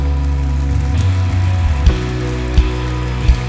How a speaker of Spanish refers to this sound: Denle un aplauso a Él.